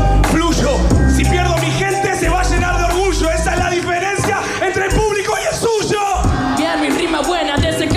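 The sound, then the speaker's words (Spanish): A dense, loud stretch of overlapping voices, with people whooping and shouting over a crowd's babble and a heavy low rumble throughout. “No sé qué está pasando, está una gente gritando al fondo.”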